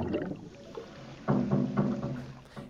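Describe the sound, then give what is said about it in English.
A simulated sound of a probe plunging into water on Earth with a sudden loud splash, followed by a few churning, sloshing surges that gradually settle. No voices. “Here's what a probe splashing into water on Earth would sound like.”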